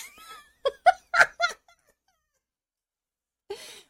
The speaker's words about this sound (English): The weird sounds you hear are probably dogs. Probably. Definitely.